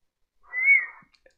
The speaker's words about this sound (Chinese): 我洗好头，用毛巾擦干，冲着隔断的方向吹一声口哨。